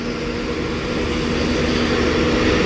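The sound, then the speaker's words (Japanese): A steady, low engine drone with a faint tonal hum, like an airplane beginning to roll on the tarmac, holding constant and growing slightly louder toward the end. “今飛行機1台動き出しましたね”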